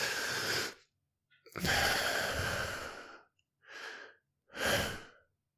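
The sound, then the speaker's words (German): A long, deep exhale sighs out, followed by a couple of shorter, softer breaths, with brief silent gaps between them and no talking. “Und wenn ich es loslasse, dafür muss ich wirklich”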